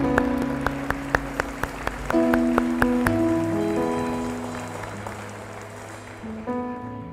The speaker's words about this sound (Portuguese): Eu vou aplaudir Jesus sozinho, só para quebrar um pouquinho o clima.